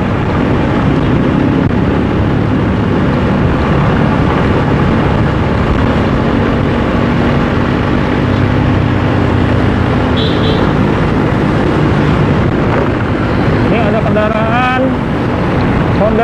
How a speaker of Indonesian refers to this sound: sebelah kanan ITC Permata Hijau saat ini belum terlalu ramai sih lalu lintas masih lancar padat tapi lancar